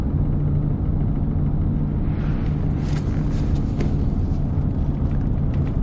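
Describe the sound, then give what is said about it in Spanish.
A pickup truck drives along with a steady, heavy low rumble of engine and road noise, a few faint rattles and hisses rising briefly in the middle. No voices. “Arnulfo conduce la camioneta y llama por teléfono.”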